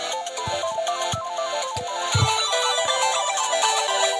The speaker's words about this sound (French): C'est top, hein C'est pas mal, ouais. C'est la version arcade euh, qui fait des bruits un peu 8 bits, euh, Game Boy, etc.